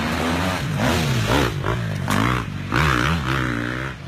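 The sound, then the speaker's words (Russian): An amateur racer named Jim Parsons rides a new Swedish motorcycle along a forest trail in the hills of Alabama, several years ago. The engine revs up and down repeatedly, its pitch climbing and dropping as he works the throttle, with some clattering along the way. The sound is loud, with no voices. “Сейчас вы слышите, как по лесной тропе среди холмов Алабамы едет на мотоцикле гонщик-любитель по имени Джим Парсонс.”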